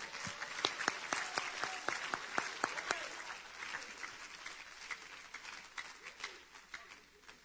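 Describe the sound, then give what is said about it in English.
An audience at a Sunday night church service claps hands together in a dense, steady burst of overlapping claps, with several sharp, prominent claps early on before the applause thins slightly and continues at a moderate level. “Now clap your hands one more time unto the Lord.”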